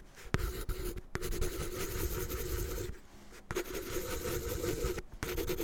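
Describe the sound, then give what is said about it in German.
A pencil scratches steadily across rough paper in continuous strokes, with a few brief pauses between bursts of scribbling. No one speaks. “Bleistift?”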